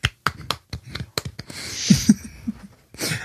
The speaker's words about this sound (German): Wow, ja. wir haben richtig viele applaudiert. Einfach genau. total viele.